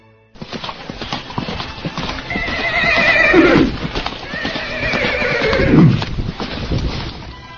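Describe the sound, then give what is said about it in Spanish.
A horse whinnies twice, each long neigh sliding downward, over a steady clip-clop of hooves that continues throughout; fairly loud, with no voices. “Se lo debo a mi caballo, respondió.”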